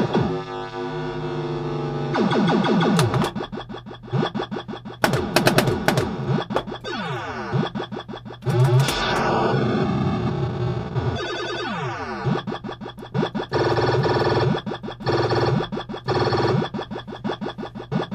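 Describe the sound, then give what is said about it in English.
Loud, busy sounds of a Quicksilver pinball machine with the ball in play for a long time: rapid electronic beeps, whooshing chirps and sharp bursts pile up in a fast, frantic rhythm that keeps getting faster, with no voices over them. “So now Quicksilver is really getting it gets an adrenaline pumping because now it's really making that fast sound now because you've had the ball in play for a long time.”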